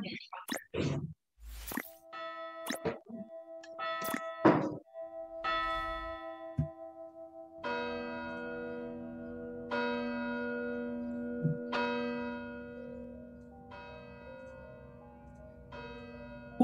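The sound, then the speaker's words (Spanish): A church bell rings repeatedly at 10 o'clock at night in November, with long, resonant tones, struck about every two seconds and left to hum between strikes, over a low rumbling background; some brief clatter and shuffling come before it. “campana repica de fondo.”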